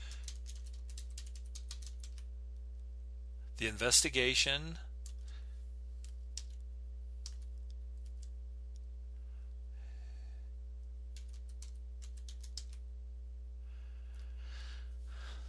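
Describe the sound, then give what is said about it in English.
Irregular bursts of typing on an old computer keyboard with worn-off keys, entering Italian text to translate, quick clustered clicks with pauses between, over a steady low electrical hum; a person briefly murmurs a few words near the start. “My keyboard keys are so fucking worn off.”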